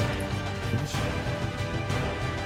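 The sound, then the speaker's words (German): Dice clatter loudly across a hard tabletop, a dense rattling with a couple of sharper knocks standing out, with no one talking. “Irgendjemand würfelt sehr laut”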